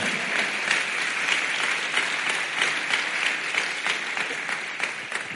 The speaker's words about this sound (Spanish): Alguien dice amén. Dele palmas al Señor.